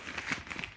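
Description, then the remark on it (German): Crinkling and crackling of packaging, a quick run of irregular, dry rustling bursts with no voices, lasting under a second at a moderate level. “ich habe nur irgendwie euch beim Knistern zugehört und gemerkt, dass es das ein ziemliches ähm, Erlebnis sein könnte, dieser Podcast.”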